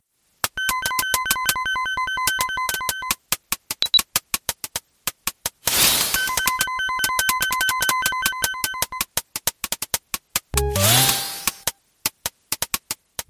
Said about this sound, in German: Geräuschkulisse in einer Polizeiwache und da hören wir im Hintergrund Schreibmaschinengetippe und klingelnde Telefone und eine zugleitende Fahrstuhltür und alles mit den Fähigkeiten der Adlib Soundkarte erzeugt. Das können wir uns mal kurz anhören.